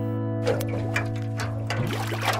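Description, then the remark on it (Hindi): Water sloshes and splashes in short irregular bursts as two kilograms of raw sour mangoes are rinsed and turned by hand to make Andhra-style mango pickle, over a steady low background hum. “दो किलो कच्चे खट्टे आम को पहले पानी से अच्छी तरह साफ कर लें”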